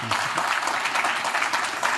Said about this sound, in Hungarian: Köszönjük szépen, ezzel a vita véget ért. Nagyon köszönöm mindkét képviselőtnek, hogy elfogadták a meghívásunkat, válaszoltak a kérdéseinkre és tájékoztatták a nyilvánosságot. Egy nagy tapsot szeretnék kérni mindkét képviselőtnek a közönség soraiból.